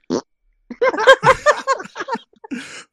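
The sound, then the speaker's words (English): A voice makes a brief, raspy sputter imitating a small fart let out by a woman while urinating, surrounded by bursts of loud laughter; a short vocal blip opens it and another breathy sputter trails at the end. “What about what about if it's a good piss and it's like one of those ones where she lets out like a little fart?”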